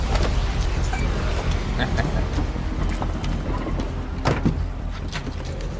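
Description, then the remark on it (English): The door of an unlocked car opens and someone climbs into the seat, with a short sharp clunk partway through, all over a steady low rumble of traffic or an idling engine. “Get in, it's unlocked.”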